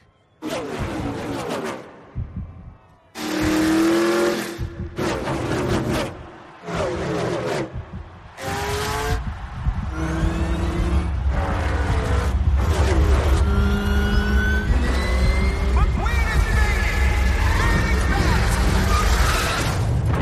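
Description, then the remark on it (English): Racing car engines from the trailer for the animated film Cars 4 rev and whine in short, loud bursts with pauses between, then settle into a continuous roar over a deep, steady rumble for the second half. “Before we go into this, let's dive into the trailer.”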